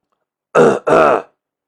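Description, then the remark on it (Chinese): A man, turning away in embarrassment, gives two short, throaty coughs back to back, loud and voiced with a gruff, awkward edge. A brief gap separates them, and no one speaks. “他赶紧就转过了身去， 尴尬的咳嗽了两声。”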